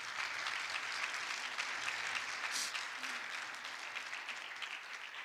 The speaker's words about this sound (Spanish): Den un fuerte aplauso a Jesús, nuestro Salvador.